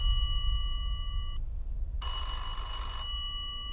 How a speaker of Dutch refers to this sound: Net voor André de stekker uit het contact trekt, gaat de telefoon over.